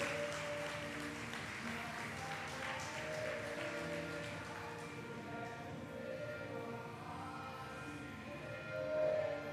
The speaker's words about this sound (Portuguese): Diga glória a Deus e dê um aplauso forte para Jesus.